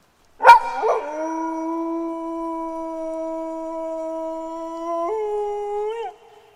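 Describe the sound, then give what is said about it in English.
A wolf lets out one long, steady howl close by, opening with a sharp yelp and lifting in pitch near the end before cutting off. No voices, just the lone cry. “Unfortunately, you hear even closer the same yipping.”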